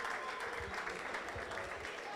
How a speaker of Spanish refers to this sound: Muy bien, bueno, muchas gracias. Fuerte el aplauso acá para el compañero.